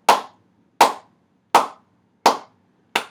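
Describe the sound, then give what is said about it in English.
Five sharp, slow hand claps made right in front of the microphone, spaced evenly, each loud with a quick decay, no talking in between. “Everyone loves a good slow cat clap on a podcast, right sure.”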